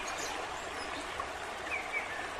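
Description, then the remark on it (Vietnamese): A babbling stream flows steadily with a soft, continuous watery rush, heard alone, with a few faint bird chirps briefly rising above it. “Trong thanh âm tiếng suối reo róc rách như tiếng vọng từ ngàn xưa dội về, Hồ Chủ tịch tiếp lời.”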